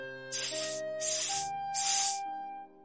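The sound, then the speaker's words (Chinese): Three sharp, breathy hisses, each about half a second long and evenly spaced, as a father imitates a snake to teach a little girl at the zoo. Steady music plays underneath. “爸爸教黛西学小蛇。”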